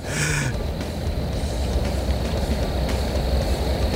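Quiet city ambience with crickets: a steady, low rumble of distant traffic fills the background, with a thin high-pitched hum running throughout and a brief tonal sound at the very start. No one speaks.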